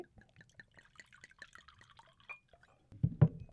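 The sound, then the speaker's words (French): Orange-coloured eau de vie poured into a glass at 10:30: a quick series of small, light drips and trickles, ending in a louder, fuller splash of liquid. No one speaks. “Un petit peu d'eau de vie à 10h30.”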